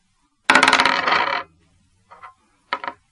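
A six-sided die, rolled to choose a nickname, clatters across a hard tabletop in a loud burst of rapid rattling taps, followed by two brief, quieter clicks as it settles.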